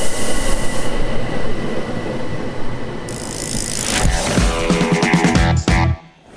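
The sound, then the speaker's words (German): An S1 S-Bahn commuter train to Linz Hauptbahnhof rolls into platform 2 at Enns station, a steady loud rumble of wheels and motors with high metallic squealing as it brakes, then the noise drops away as it comes to a stop. “Bahnsteig 2. S1 nach Linz Hauptbahnhof fährt ein.”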